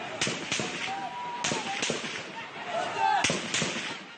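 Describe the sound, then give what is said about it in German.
Sharp gunshots crack out in a loose, irregular series, mixed with screaming and shouting from a protesting crowd being driven apart by security forces, all echoing through an outdoor street in the town of Mashar, Iran, near the Iraqi border. “Schreie und Schüsse am vergangenen Samstag in der Stadt Mashar nahe der irakischen Grenze.”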